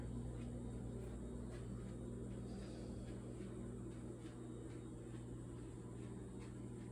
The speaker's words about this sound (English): So you can listen to the refrigerator right now, right? And see if you can notice. If you have headphones on, this would be easier to note. Um, because I have it in stereo right now. So see if you can notice me walking away from the refrigerator.